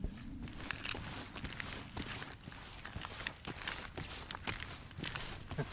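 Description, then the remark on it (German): Steady, rhythmic footsteps of a woman hopping from one leg to the other through a forest while carrying a baby, at a brisk, bouncing pace somewhere between walking and jogging, fairly loud, with a constant low rumble underneath and no talking. “das ist so ein halbes Joggen und ein halbes Walken sobald die Kleine wach geworden ist.”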